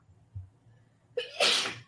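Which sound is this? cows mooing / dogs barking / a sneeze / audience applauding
a sneeze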